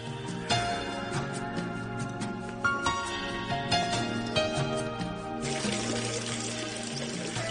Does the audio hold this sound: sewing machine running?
no